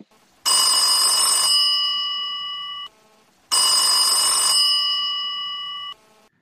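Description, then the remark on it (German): A telephone rings twice as an outgoing call is placed, each ring a bright, buzzing bell-like burst lasting about two seconds with a steady tone trailing off, separated by a short pause. Clear, no voices. “Also, ähm, und ich rufe jetzt gerade verschiedene Leute an, dass die mir vielleicht aus der Patsche helfen.”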